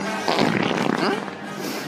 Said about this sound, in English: Yeah, it's like when Dooku's like, "This conflict won't be resolved by our skills with the Force. It's just going to be resolved by our skills with the farts.